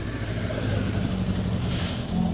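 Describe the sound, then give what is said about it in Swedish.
A Ford Escort rally car rolls past during the Midnattssolsrallyt, its engine a steady low, throaty drone that holds throughout, with a brief airy hiss rising near the end. No one speaks. “Jägerhult och Wikman rullade förbi i sin fina eskort.”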